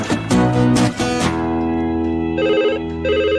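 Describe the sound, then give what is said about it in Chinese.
A telephone rings in bursts, with bright, buzzy tones repeating in short pulses over steady sustained background music, as Bob phones Winnie in the Bob the Builder cartoon. No one speaks. “我给温妮打电话，告诉他你要回去了。”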